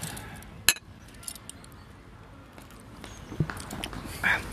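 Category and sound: household object, glasses clinking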